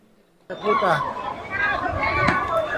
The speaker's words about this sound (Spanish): son gritos desesperados y golpes en los escudos policiales. Son imágenes fuertes y muestran a un hombre con la cara ensangrentada durante violentos disturbios en Colombia. Policías antimotines intentan levantarlo mientras varios manifestantes graban